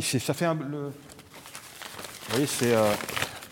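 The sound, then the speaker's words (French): Dry, crinkly cacao leaves rustle with a papery, crackling sound like handled banknotes, filling a short pause between bits of a man's speech. “vous voyez, le cacao, c'est le bruit des du billet de banque.”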